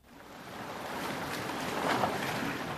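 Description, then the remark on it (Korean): A steady rush of seaside waves washing onto a beach, swelling slightly toward the end, with some wind noise in the background and no voices. “여기 우리 처음 만난 바닷가 기억나죠?”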